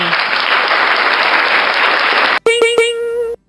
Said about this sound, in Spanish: aplausos para Auronplay por ahí para nuestro amigo.